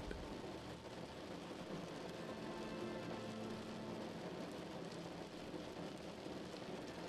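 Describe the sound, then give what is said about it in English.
Steady rain patters against a window in a continuous, even wash of soft taps, with no pauses or voices, holding at a constant moderate level throughout. “Deep sleep rain at your window”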